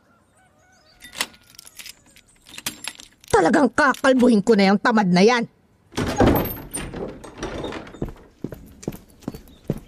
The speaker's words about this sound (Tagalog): Tahimik! Tumabig at bubuksan ko ang pinto.